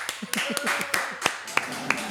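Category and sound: crowd, applause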